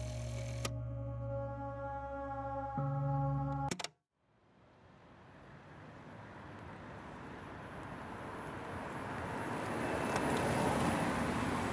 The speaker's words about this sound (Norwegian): En elektrisk førerløs buss triller i Bodø sine gater.